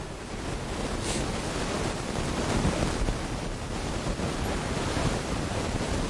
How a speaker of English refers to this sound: Sounds like a storm.